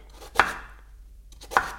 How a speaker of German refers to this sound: Boah, ich musste noch nie so viel schneiden hier wie heute.